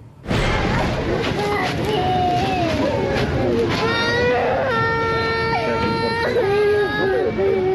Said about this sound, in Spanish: Allí se escuchan las voces de niños pequeños llorando desconsoladamente y pidiendo ver a sus mamás y a sus papás.